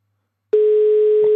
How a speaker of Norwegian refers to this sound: Oh, altså, hver gang når den ringelyden ja. kommer, så tror du sånn Å, oh, nå skal de tatt den. Og så nei.